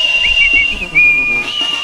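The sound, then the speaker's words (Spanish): Shrill, sustained whistles from several men overlap at a steady high pitch at a jaripeo (rodeo), with a louder blast in the middle over a low murmur of crowd noise. “A ver, el chiflido de los hombres.”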